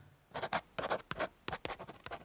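A pencil scratches across paper in quick, irregular strokes as a man makes a drawing, fairly quiet, with short bursts of scribbling separated by tiny pauses. A faint steady hum sits underneath.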